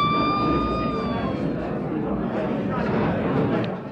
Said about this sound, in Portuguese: Meio-dia, a sirene toca.